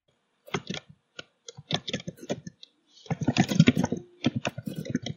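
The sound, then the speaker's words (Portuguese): Rapid clatter of keys on a computer keyboard, fairly loud, typed with the microphone left open while replying to a YouTube chat, coming in uneven bursts of typing with short pauses, then a denser flurry toward the end. “digitando com o microfone aberto e o editor chorando sangue.”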